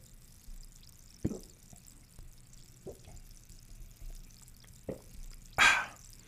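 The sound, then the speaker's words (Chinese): Sparkling water being poured for a toast: a steady soft fizzing hiss with a few sharp knocks, then a louder splashing gush near the end. No one speaks. “一样在开始之前呢，让我们用气泡水嘎打给来干几杯哦，干几杯哦。”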